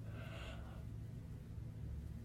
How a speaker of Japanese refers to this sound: はい、あくびしました。あくびしちゃダメじゃないラジオで。